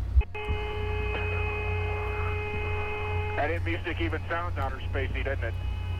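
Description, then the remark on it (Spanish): Steady, eerie whistling tones hold over a constant low radio hum for a few seconds, then give way to garbled, radio-filtered voices talking over the same droning static, in an audio recording made during the Apollo 10 mission. “¿Escuchan esa especie de silbido? Suena como música del espacio, dicen.”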